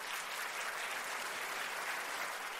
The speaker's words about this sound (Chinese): 要不要学？掌声嘛！